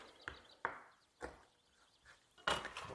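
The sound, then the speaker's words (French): Knife chopping hazelnuts on a cutting board: five or six sharp, uneven thuds with a woody crack, the last ones heavier and tightly clustered, no talking. “J'ai tout découpé.”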